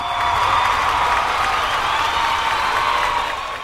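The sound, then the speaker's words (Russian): Loud, sustained applause from a large crowd, dense and steady clapping with a few cheers mixed in, filling the whole few seconds before easing slightly at the end. “Я это буду делать в хронологическом порядке на фоне бурных и продолжительных аплодисментов.”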